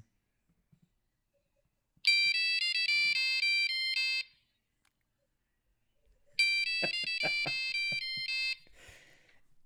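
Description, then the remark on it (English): A satellite phone ringtone trills in two loud, bright bursts of rapid electronic warbling, each about two seconds long, separated by a short silence, with faint knocking under the second ring. “involves oh, yeah. a satellite phone.”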